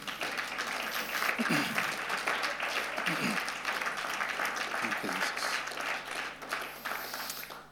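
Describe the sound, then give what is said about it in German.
A church audience applauds steadily for several seconds in honor of God, a dense wash of many hands clapping at once that fades slightly toward the end, with faint voices mixed underneath. “Berührt oder bewegt eure Hände. Gottes Ehre.”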